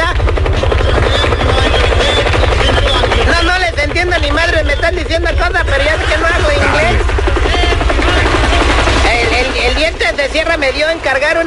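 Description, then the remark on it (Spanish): A helicopter thunders overhead with a steady, rapid low-pitched thumping from start to finish, while a man hiding behind a house about a mile from the horseshoe in Joliet talks in Spanish over the loud rotor noise. “Es que el helicóptero está volando arriba.”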